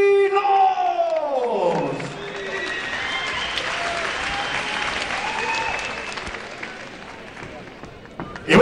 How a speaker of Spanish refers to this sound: Vamos a darle fuerte el aplauso, Brian Mosi.